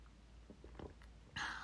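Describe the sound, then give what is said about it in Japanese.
Quiet mouth sounds: a couple of soft clicks, then a brief airy slurp as someone sips hot black tea during a recording. Nobody speaks. “ちょっと収録中ですけどあの紅茶飲んでいいですか飲みますね”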